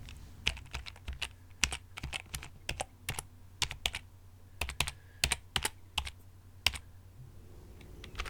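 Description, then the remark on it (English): Quick, uneven keystrokes clatter on a computer keyboard as someone does calculations, a steady run of sharp clicks with brief pauses, fairly clear over a low background hum. “I just need to do some calculations on my computer.”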